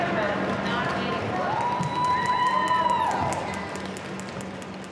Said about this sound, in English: Yeah, everybody takes a knee. And then there's usually also a round of applause as soon as the person stands up.